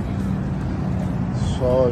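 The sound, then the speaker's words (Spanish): Steady low road rumble of a car driving along a highway, constant and fairly loud throughout, with a voice briefly coming in near the end. “Era que yo, estoy en la carretera, ¿verdad?”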